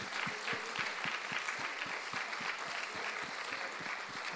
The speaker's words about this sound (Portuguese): Glória a Deus, podemos aplaudir.